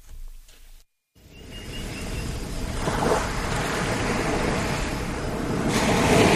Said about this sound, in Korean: 아, 파도 소리 좋네요. 네, 제주도로 가는 거군요.